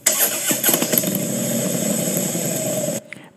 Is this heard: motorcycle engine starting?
yes